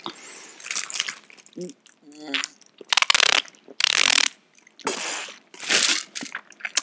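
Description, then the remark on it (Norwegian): A fridge dispenser grinds and rattles in several loud mechanical bursts as ice cubes and water come out, with short pauses between and a brief voice murmuring in the middle. “Nå hører dere sikkert vann. Det er isklumper med vann i kjøleskapet.”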